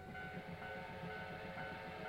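A steam train rumbles along in a steady, rhythmic chug, a low pulsing beat under a sustained, faintly whistling tone, holding at an even loudness throughout with no voices.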